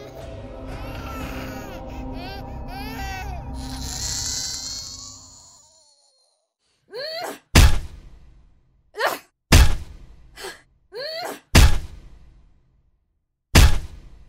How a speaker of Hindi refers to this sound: ये आवाज जो आप सुन रहे हैं ये आवाज है उस बच्चे के सर को एक पिलर पर पटके जाने की बच्चे की रोने की आवाज से इरिटेट होकर बेटियों ने बच्चे को टांगों से पकड़ के उठाया और फिर उसका सर